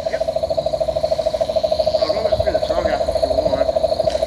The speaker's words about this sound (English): Loud, hey. And that's, uh, we believe that's cane toad, is it?